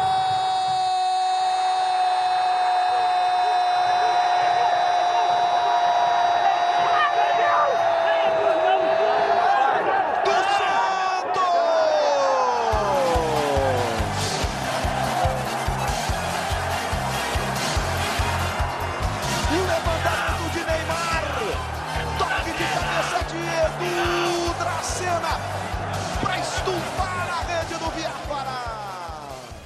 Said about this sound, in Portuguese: Então, gente, como vocês podem até reparar aí no áudio, dá para ouvir de fundo alguns jogadores já comemorando o título, né? Gritando é campeão, é campeão, só que calma, tinha mais tinha mais um tempo a ser jogado